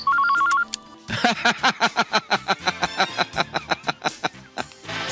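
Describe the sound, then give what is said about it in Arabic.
A telephone call to the number of Egyptian artist George Bahgory rings with a short electronic trill before an answering machine picks up, followed by a quick, rhythmic run of bright melodic tones, fairly loud, with no one talking. “كنت بكلمه في التليفون وبعدين لقيت انسر ماشين بترد عليا بتقول لي ده دي نمره جورج البهجوري”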